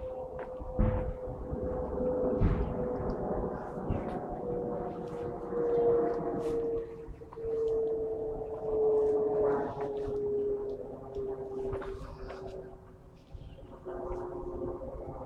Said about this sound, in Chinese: 在我头顶上飞过的就是人类模仿鸟类而发明的飞机。